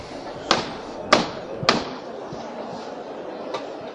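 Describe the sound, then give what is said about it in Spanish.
Costaleros lifting a procession float (paso) in a street packed with people: three sharp, evenly spaced knocks ring out over a steady crowd murmur, followed a couple of seconds later by a single fainter thud. “Y escuchamos la levanta.”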